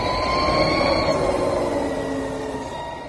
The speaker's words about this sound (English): That's a Harley Davidson electric motorcycle.